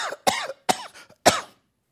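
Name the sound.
coughing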